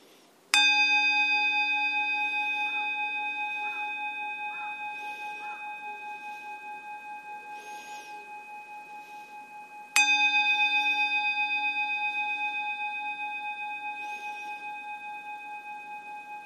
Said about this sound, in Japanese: はい、えーと、そしたらねまずはあの鐘を3つ鳴らしますので、えー、皆さん背中をまっすぐして、えー、ちょっと目をつぶっちゃった方がいいかなと思います。はいえー、鐘の音に集中して、えー、その後ちょっと、えー、呼吸に集中してみてください。